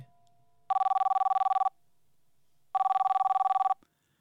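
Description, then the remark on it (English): A telephone rings twice, each burst a rapid, buzzy trill lasting about a second, separated by a short silence. Loud, with no voices. “Just then, the phone rang.”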